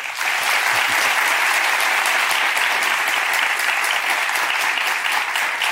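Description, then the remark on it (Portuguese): Steady, dense applause from an audience, a continuous crackle of many hands clapping at an even loudness for several seconds with no voices on top, welcoming economist Samuel Pessoa, a researcher at the Fundação Getúlio Vargas. “Aplaudam Samuel Pessoa.”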